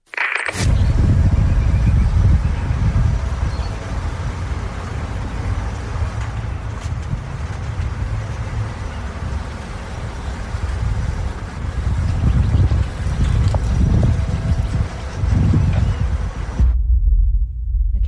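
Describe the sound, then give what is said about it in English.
Steady outdoor light wind blowing continuously, with a deep rumbling buffeting low in the mix and a soft airy hiss above, fairly loud, cutting off abruptly near the end, heard through a bug. “so pretty much every time we've crossed to the bug, we've heard the birds, we've heard the light wind.”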